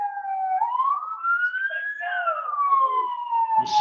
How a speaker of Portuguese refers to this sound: Tá saindo uma ambulância aqui do clube. Galera, puxou uma ambulância aqui, a galera tá correndo para tirar as coisas aqui, para passar uma ambulância aqui.